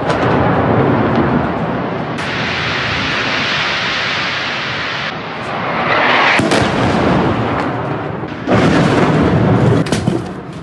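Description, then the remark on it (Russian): Heavy explosions from a night cruise missile strike on a city thunder without pause, a dense, loud roar of blasts with several sharper, louder bursts toward the end, blowing out windows in homes. No one speaks. “От ночных взрывов проснулся весь город, в домах выбило стекла.”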